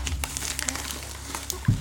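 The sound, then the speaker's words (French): Gift wrapping paper being crumpled, a steady run of crisp crinkles and crackles over about two seconds, with a low hum underneath and no one talking. “T'as surtout dit qu'il allait plus s'amuser avec le papier cadeau qu'avec le cadeau.”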